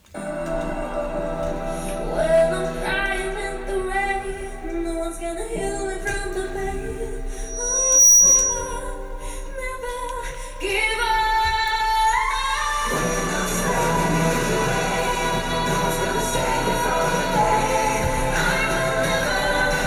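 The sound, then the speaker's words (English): A pop song, the song a female singer used the previous year in trying to represent Sweden, plays at a steady, fairly loud level with melodic vocals over instruments, swelling into a fuller, denser arrangement partway through. No one talks over it. “So yeah, this is the last song, uh, last song, uh, the song from last year uh, that she tried to represent Sweden with.”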